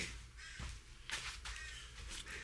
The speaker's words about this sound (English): that Crow is not going to go away